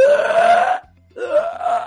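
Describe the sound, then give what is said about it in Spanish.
Someone imitates loud hiccups with their voice: two long, strained, rising vocal bursts separated by a brief pause. “Y unos hipos así.”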